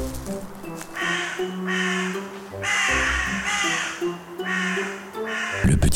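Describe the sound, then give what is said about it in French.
Loud, harsh crow caws in the thickest, darkest part of a forest repeat in a steady series of about five calls, roughly one per second, over a low continuous background rumble, ending with a brief rustling burst. “Les oiseaux étaient venus”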